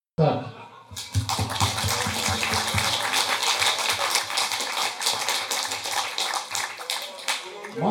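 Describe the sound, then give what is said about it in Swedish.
After a brief moment of quiet, a minute's silence at a book release in memory of writers from the community who have died, a group breaks into sustained applause, dense and even, keeping up at a steady loudness to the end, with a low murmur underneath. “Så jag skulle vilja utlysa en tyst minut följd av en applåd med början nu.”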